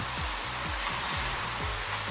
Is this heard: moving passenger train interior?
no